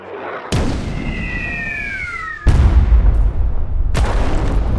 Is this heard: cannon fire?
yes